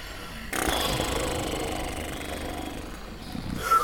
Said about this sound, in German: Vorsichtig öffnete er die Tür einen Spalt und lauschte ins Innere. Leises Schnarchen war zu hören.